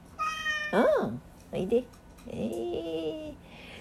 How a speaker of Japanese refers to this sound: ルパンが今後ろでニャンニャン泣いてますけども